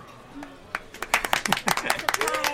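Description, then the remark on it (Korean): A small group of guests in a family restaurant breaks into applause for a customer's 16th birthday, scattered claps at first that quickly thicken into steady, brisk clapping, with a few voices calling out underneath. “16번째 생일을 진심으로 축하드리면서 마음을 담은 따뜻한 박수 부탁드립니다.”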